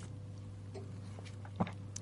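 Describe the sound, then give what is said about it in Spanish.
A quiet sip of coffee: one short wet slurp of the lips against a low steady electrical hum, with no talking. “Me tomé un sorbo de café, perdón.”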